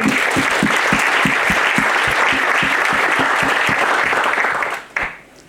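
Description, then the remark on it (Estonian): A crowd applauds steadily with dense, overlapping claps for about five seconds, then the clapping quickly fades out with a few last claps. “ma usun, et paljud-paljud on saanud tänu sellele just edukamaks, et aitäh teile, et te teete seda klubi teeme aplausi.”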